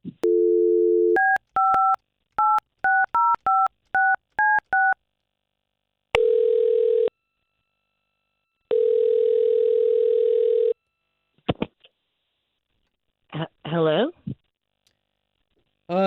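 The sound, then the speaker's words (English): A phone line's dial tone gives way to a quick run of keypad beeps, then two long ringback tones ring out, followed by a click as the line picks up. “We're gonna try to call her right now, and we'll talk to her first.”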